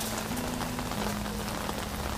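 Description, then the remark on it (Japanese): Steady rain pours down outdoors, a dense continuous hiss of drops striking surfaces, with a faint low hum underneath and no voices. “えー、雨の中で思いながら録音をしています、”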